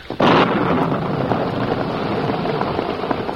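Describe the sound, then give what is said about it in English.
A sudden, loud crack of thunder from a late afternoon storm breaks out and rolls into a steady, heavy rumble with a hissing wash of rain-like noise, on the way into the town of Rockton, lasting the whole time with no voices. “Just as he and Tonto headed into town, a late afternoon storm broke.”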